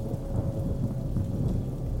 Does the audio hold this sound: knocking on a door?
no